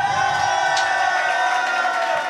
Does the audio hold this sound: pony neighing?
no